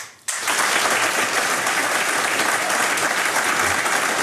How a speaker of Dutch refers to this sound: U hoort het. Een super spontaan keurig getimed applaus.